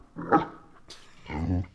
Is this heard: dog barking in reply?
yes